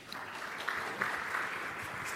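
Steady audience applause fills the whole stretch, a dense wash of many hands clapping at an even, sustained level without any talking, as the head of sales and the head of marketing at Terminus are brought on stage.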